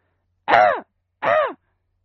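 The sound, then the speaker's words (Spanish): A person imitates the flight call of a collared dove: two harsh, nasal, drawn-out cries about a second apart, loud, with no other sound around them. “que no y esta es en vuelo.”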